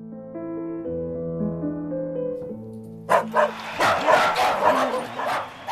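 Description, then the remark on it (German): A gentle piano melody plays for a few seconds as a poodle in a lilac tutu dances on a stage, then the dog breaks into a flurry of sharp, high yaps mixed with noisy clapping and cheering, loud. “Applaus, Gekläff, Jubel.”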